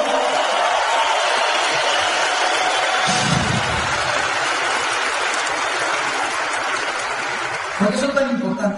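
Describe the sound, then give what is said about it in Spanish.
A steady wash of clapping from a large audience, given for the speaker's mentors Evo and Peter Müller, fills the whole stretch, dense and sustained, with a brief murmur of voices rising near the end. “El primero de septiembre tuve oportunidad de estar con mis maestros y mentores, a los que yo considero mis abuelos, Evo y Peter Müller Me Vienen a regalarles un fuerte aplauso hasta el otro lado del mundo.”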